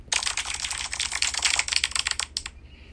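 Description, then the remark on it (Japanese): A canned applause sound effect played from an applause button: a dense, crackly burst of many hands clapping for about two and a half seconds, then cutting off abruptly over a faint low hum. “やったー初めて拍手ボタン使ったよね。”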